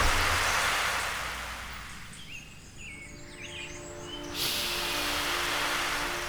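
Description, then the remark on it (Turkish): Steady rushing surf washes in and out, fading briefly before swelling again, with faint bird calls chirping above the hiss of the waves. No one speaks. “O gün denizin tadını çıkarıyorum.”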